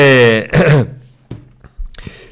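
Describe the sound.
A brief voiced hum breaks into a single harsh throat-clearing rasp, followed by a few faint clicks and small mouth noises.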